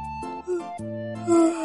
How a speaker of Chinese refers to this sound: 啊！哎呀，豆包大哥，周小萌给我讲题呢，你在旁边一个劲儿的打哈欠